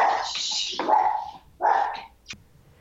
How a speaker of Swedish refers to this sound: Det här är hundtätaste avsnittet vi har haft någon gång. Du har en hund och jag har två hundar här.